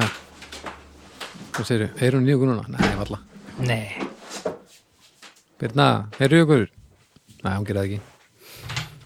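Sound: window being closed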